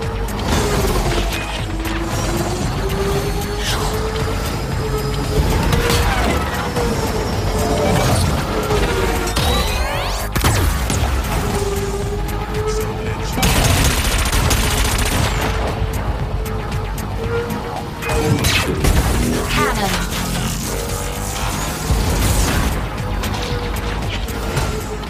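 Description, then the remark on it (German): Dense, loud futuristic racing video game soundscape: a sustained whining engine tone that rises and falls, layered with mechanical clatter, crashes and booming impacts throughout, with no talking. “Aber hier hat man wirklich das exzellent geschafft, diese akustische Stimmung auch neben der Musik zu übertragen, die bei so einem Rennen dann herrscht.”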